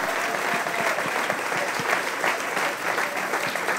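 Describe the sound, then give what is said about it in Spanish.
A crowd claps steadily and loudly for a few seconds as an applause to the Lord, a dense wash of many hands with no pauses and no talking. “Si le va a dar un aplauso al Señor, aleluya.”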